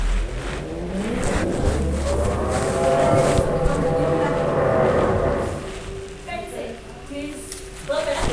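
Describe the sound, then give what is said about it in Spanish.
A power drill whirs steadily for several seconds, its motor pitch climbing as it spins up, then cuts off, leaving quieter background noises and brief clatters. “Están taladrando.”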